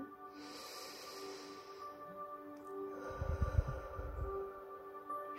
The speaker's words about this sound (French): Et maintenant, parce qu'on voit mieux les yeux fermés à l'intérieur de soi, je vous invite à fermer les yeux et par une grande respiration